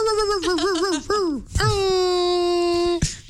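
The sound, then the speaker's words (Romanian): A person imitates a dog's whine: a few short, wavering high-pitched whimpers, then one long, steady drawn-out whine that ends abruptly. “spune și uh, oftat de câine?”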